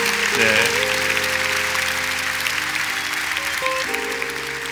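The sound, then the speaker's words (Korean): A large church audience claps steadily and warmly to welcome newcomers, the dense applause continuing while sustained instrumental music plays softly underneath. “자, 오늘 우리 교회 새로 오신 분들을 우리 박수로 한번 환영하겠습니다.”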